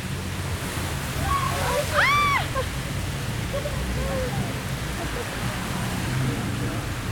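Steady, heavy rain falls on Lyon, hissing and pattering evenly throughout, with a low continuous rumble of thunder underneath and a brief rising-falling call cutting through near the start.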